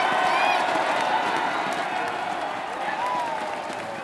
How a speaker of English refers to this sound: In honor of these final fights, our fighters on both sides will be fighting to the death. The crowd goes nuts.